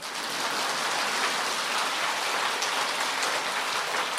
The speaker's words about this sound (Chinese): 现在可以鼓掌啦。